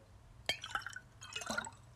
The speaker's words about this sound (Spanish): ah la tirado todo el agua por encima.